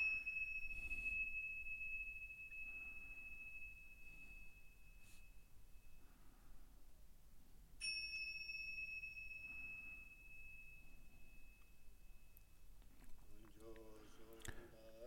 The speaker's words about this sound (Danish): den her lille klokke, som jeg har brugt i programmet forskellige steder, hvor har jeg egentlig den fra, tænker du måske, hvis du alligevel går og keder dig?